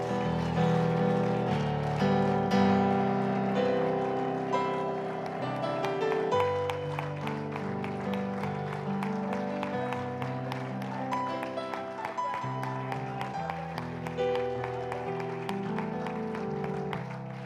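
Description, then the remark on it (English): A worship audience claps hands together in a steady, continuous rhythm, fairly loud, with sustained music playing underneath throughout. “Bible said, clap your hands, all you people.”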